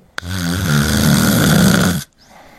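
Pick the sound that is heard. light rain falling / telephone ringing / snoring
snoring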